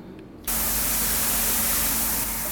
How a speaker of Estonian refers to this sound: Need on siis vihmatoaheled, eks praeguste ilmadega kulu väike värskendus ära. mitu vihmarežiimi siis siin teil on? meil on kolm, on seenevihm, troopiline torm ja sügisene torm.